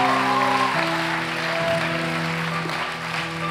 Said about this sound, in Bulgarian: О, ръкопляскат слабо, религиозно. Ръкопляскате като перфектни хора, които нямат проблеми.